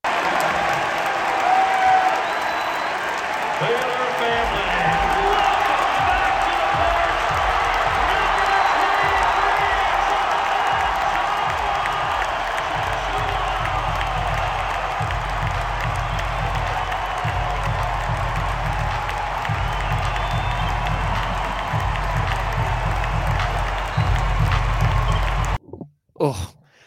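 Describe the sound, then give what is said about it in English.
A huge arena crowd roars in a sustained standing ovation at the Ferrell Center as a player takes the basketball court against Texas Tech, dense applause and cheering for over twenty seconds with a deep rumbling undertone, then it cuts off abruptly near the end. “got to take the court at the Ferrell Center against Texas Tech to this just outstanding ovation.”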